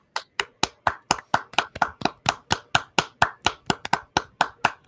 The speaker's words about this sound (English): You ready to give him a round of applause when you pull him in?